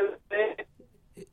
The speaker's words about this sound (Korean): 예, 아 지금 연결 상태가 좋지 않아서 잠시 끊겠습니다. 죄송합니다. 잠깐만 기다려 주세요. 저희들이 다시 전화를 드리겠습니다. 아, 청취자 여러분, 이게 연결 상태가 전화 연결 상태가 갑자기 좋지 않아 가지고 저희들이 다시 연결하겠습니다.